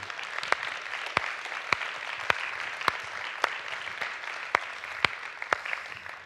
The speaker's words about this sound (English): Hallelujah. Can we just give God a hand clap? Thank you, Lord.